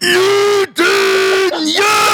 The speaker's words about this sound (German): und ich wusste nicht, dass ich das, laut, das laute Geräusch ja auch rausbringen muss am Ende des Tages. Jetzt habe ich ja in meiner Wohnung rumgeschrien.